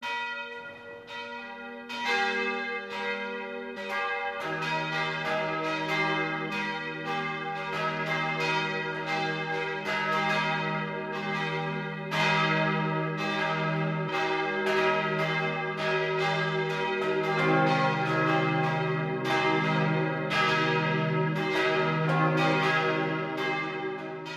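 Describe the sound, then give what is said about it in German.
Several church bells ring the 12 o'clock noon peal in Schonungen, Lower Franconia, Bavaria, about five kilometres east of Schweinfurt where the Steinach joins the Main, broadcast on Bayern 1; their overlapping strikes blend into a steady, resonant wash of deep and bright tones with no voices. “Das Mittagsläuten kommt heute aus Schonungen in Unterfranken.”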